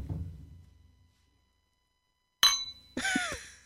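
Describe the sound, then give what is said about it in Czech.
Two sharp clinks on a glass, a brief pause between them, each leaving a thin high ring that hangs on for a moment; a low fading hum comes first. “tak teď to nezní, ale když máš dobrý sklenička a dáš se k uchu, tak pak Bylo vibrujou.”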